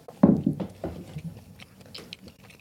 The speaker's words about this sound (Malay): Kau cakap something sikit aku kunyah ni.